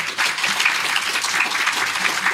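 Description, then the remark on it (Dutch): Steady audience applause, a dense wash of many hands clapping at an even, fairly loud level throughout, with no voices standing out. “Applaus.”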